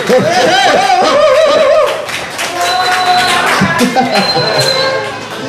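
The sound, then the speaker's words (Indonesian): A crowd of residents applauds at the start of a live show, the 200th live edition, with steady, dense clapping across the whole stretch, joined by voices shouting and cheering over it; the clapping carries on loudly to the end. “Yeah, tepuk tangan warga Yo, iya, tepuk tangan tuh.”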